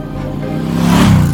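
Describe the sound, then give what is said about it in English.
A filthy motorcycle's engine revs hard as it peels out of a diner parking lot and accelerates away, its droning pitch climbing and growing louder over a second or so, with no voices. “I get my answer as Fotor left the circle and got on the motorcycle. He gave a long look over toward my car and then peeled out of the parking lot.”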